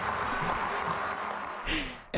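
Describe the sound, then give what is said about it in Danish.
A dense, steady roar of a large football crowd cheering and shouting together as Denmark beat Scotland 2-0, sustained at a loud level throughout with no single voice standing out. “de øh, kunne sammen med alle de andre tilskuere glæde sig lidt.”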